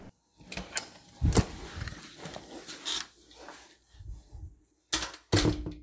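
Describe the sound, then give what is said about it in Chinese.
The speaker's dormitory door being opened: a run of clicks, rattles and low scraping, with a sharp clack early on and two louder knocks near the end. No one speaks. “好，那最后经过这一整天，我就会回到我的宿舍，这个是我开门的声音。”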